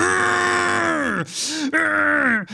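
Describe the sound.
A man vocally imitates a vehicle inspector revving a cold, fairly powerful car or motorcycle engine hard through second and third gear: a sustained rising drone broken by brief gear-shift breaths, then climbing again, loud with no other speech.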